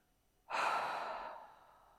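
A single forceful exhale through the mouth during a breathing meditation, a loud breathy rush that starts abruptly and slowly fades over about a second and a half, with no talking.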